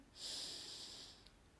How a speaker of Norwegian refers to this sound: Og vi puster inn en gang til.